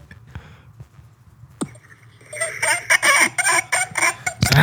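A rabbit lets out a burst of rapid, squeaky, clucking-like calls in quick rhythmic pulses. It is fairly loud, after a few quieter clicks and rustles.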